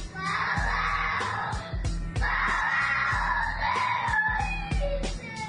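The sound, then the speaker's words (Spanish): A child cries and screams in long, strained wails, loud, with brief breaths between drawn-out sobbing cries and a low background hum throughout. “video subió una persona al YouTube en donde se escucha un niño llorando”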